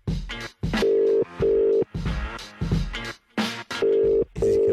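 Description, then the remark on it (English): Outgoing-call ringback tone: steady electronic buzzes in two pairs of short bursts with brief gaps, clear and fairly loud through a phone line, with other clattering sounds between them. “Oh, it's, it's ringing.”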